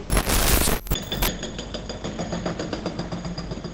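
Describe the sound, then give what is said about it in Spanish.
A pile driver hammers away with rapid, regular mechanical thuds under a steady engine drone, opening with a loud, dense burst of noise before settling into a continuous rhythmic pounding. “Bueno, con este con este martillo pilón os cuento.”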